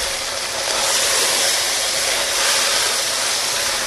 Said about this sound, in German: Ich mache jetzt hier den klassischen. So. so, ihr hört, dass das immer noch schön brutschelt. Ja, achtet darauf, dass es nicht verbrennt, aber es soll Farbe haben.